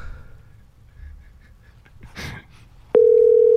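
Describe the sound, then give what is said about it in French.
Faint handset rustle and a brief noisy burst, then a loud, steady low-pitched ringing tone on a phone line, a call to the Info Coyote line, begins and holds unbroken to the end. “Ça va répondre.”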